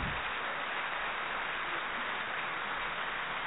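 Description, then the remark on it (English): Steady, dense applause from many hands clapping at once, a continuous crackling wash of sound holding an even loudness throughout, with no voices. “You hear those applause in the background?”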